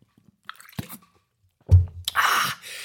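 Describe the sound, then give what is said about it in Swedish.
A sip of lightly carbonated mineral water: faint wet lip clicks, then a gulping swallow followed by a breathy, hissing exhale, with no talking. “Som man säger, sa han och tog en, klugg, eh, tog en klunk subtil kolsyrat mineralvatten.”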